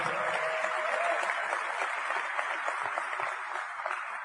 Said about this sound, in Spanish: ¿para quién está la primera convención? Levante la mano si aquí hay alguien que esta sea su primera convención. Un aplauso, un fuerte aplauso.